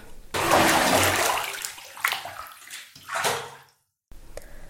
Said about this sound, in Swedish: Ännu en tur till kaldariet för Gaius och han tar ett dopp i en av bassängerna.